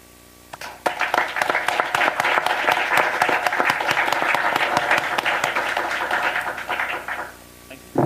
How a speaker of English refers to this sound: And I want to thank uh, Stefanus Alliance for organizing this really important and timely event. And I also want to thank the panelists and uh, the film festival Human, and I think we can just round it up with an applause.